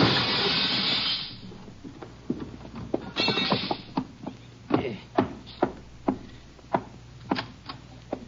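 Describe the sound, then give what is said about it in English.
A window is knocked in with a gun: a bright crash of breaking glass fades out, another clattering burst follows, then a run of sharp, irregular knocks and footfalls. “I'll knock this one in with my gun, then I'll climb in and let you in through the door.”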